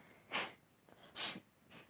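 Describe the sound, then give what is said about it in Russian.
Three short, airy nasal sniffles from a woman, caused by nerves, spaced roughly half a second to a second apart, fairly soft, with no talking in between. “извиняюсь, что шмыгаю ночь, носом, знаю, что это неприятно, но ничего делать не могу.”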